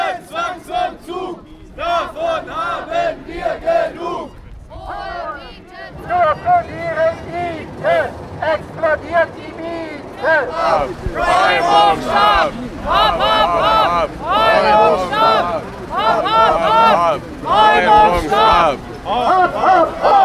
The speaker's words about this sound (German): Ihr hört Radioaktiv Berlin mit O-Tönen von Nachbarinnen und Nachbarn, die wütend über eine Zwangsräumung sind, morgens um 7 Uhr aufgenommen in Kreuzberg an der Skalitzer Straße am Dienstag, den 20. Dezember.